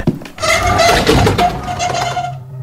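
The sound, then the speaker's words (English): A hulking, windowless, rusted metal door slides open with a loud, grinding scrape and a shrill metallic squeal, lasting a couple of seconds before it abruptly stops. No voices are heard. “You approach a hulking, windowless, rusted metal door and slide it open.”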